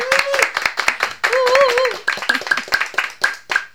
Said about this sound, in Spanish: Muy bien, gracias también de nuevo para todos ustedes. Un abrazo muy grande y un aplauso yo quiero para todos, ¿no es cierto?